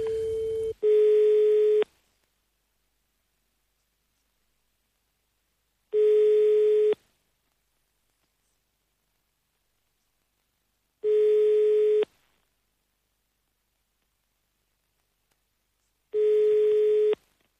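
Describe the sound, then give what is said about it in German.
A telephone ringback tone during a call attempt: four steady, mid-pitched one-second beeps, each followed by about four seconds of silence, with a brief different tone at the very start. No voices. “Wir versuchen es nochmal unter der ersten angegebenen Nummer, dann müssen wir es allerdings sein lassen.”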